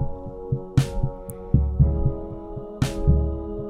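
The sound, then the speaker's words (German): A distorted keyboard plays three chords in a slow, steady throb, slower than the drumbeat, thick and buzzing, with a couple of brief hissing noise bursts cutting through; no voices. “Das die drei Akkorde hier spielt, auch mit einer Art Puls, aber langsamer als der Drumbeat und in eine Verzerrung geschickt.”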